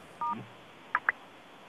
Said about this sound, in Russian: Есть ведь э, способ удержания звездочки на физической клавиатуре, и тогда открывается панель уведомлений.